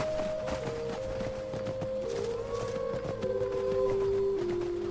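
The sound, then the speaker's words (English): Several wolves howl in the background, their long, wavering cries overlapping and sliding up and down in pitch over a steady, moderately loud ambient bed, with no one talking. “You hear the wolves in the background”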